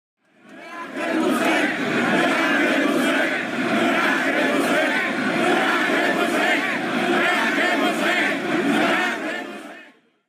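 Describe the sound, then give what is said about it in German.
A large protest crowd chants the slogan "Merkel muss weg" in unison, a loud, dense roar of many voices that fades in, holds steady for several seconds with rhythmic swells, then cuts off. “Das waren die Merkel muss weg Parolen, die jeder kennt.”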